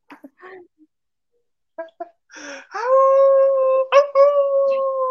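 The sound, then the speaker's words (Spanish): After a few brief voice sounds, a voice imitates a wolf's howl: one long, steady, loud howl that breaks briefly, then carries on to the end. “En eso, en eso se escucha el aullido del lobo.”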